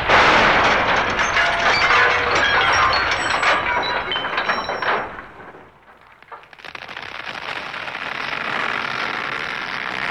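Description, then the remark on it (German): A large, heavy millstone crashes into a tree with wood cracking and splintering, a dense burst of crackling and snapping noise lasting several seconds, then a brief lull before a steady, softer rustling hiss continues. “sich die Staubschwaden nach einer Weile verzogen haben, sehen sie, wer da an einen Baum gekracht ist.”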